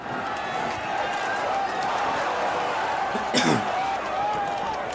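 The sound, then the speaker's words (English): A single sharp sneeze bursts out partway through, brief and fairly loud, over a steady backdrop of murmuring voices and busy noise, recorded by microphones at the Shady Pines industrial complex for mass living. “I know it's weird that we like we have to say Gesundheit here, or I don't know.”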